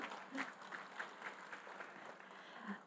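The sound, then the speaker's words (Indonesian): An audience claps steadily for a few seconds, a dense patter of many hands at a moderate level with no voices standing out. “Oh, tepuk tangan teman-teman.”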